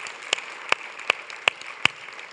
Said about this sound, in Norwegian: Vi må klappe for Johanne selv om hun ikke er her.